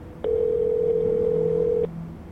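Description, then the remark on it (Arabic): A single steady electronic ringing tone from an outgoing phone video call sounds for about a second and a half, clear and fairly loud, then stops, leaving faint background noise and no talking. “خدي خدي أمي امسكي امسكي التليفون منيح مشان تشوفك لما ترد”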